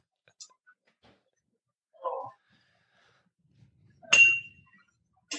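A single bright metallic clink from a metal cocktail shaker tin while a drink is being made, briefly sustaining a high tone, with a few faint taps and a soft breathy sound around it, otherwise quiet.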